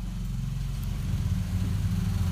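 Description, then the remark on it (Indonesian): A motorcycle engine rumbles steadily outdoors, a low, continuous drone that holds at a fairly even loudness throughout as the motorcycle goes by. “oke terus dan ini ada motor lagi kayaknya ini kita natural aja santuy ya kan”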